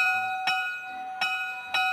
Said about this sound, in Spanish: Ahí está sonando la campana, que significa que terminó el recreo.